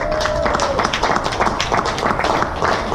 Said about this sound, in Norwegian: En stor applaus!